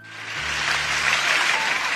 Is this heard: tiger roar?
no